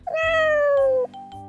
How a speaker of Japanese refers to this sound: 母さんそれトラ猫じゃないの